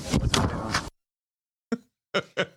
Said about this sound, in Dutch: En dicht gaat de deur.